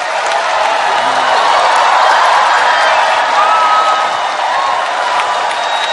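Loud, steady audience applause with cheering and a few whoops, a dense wash of clapping that holds constant for the full six seconds with no talking, welcoming a guest onto a show.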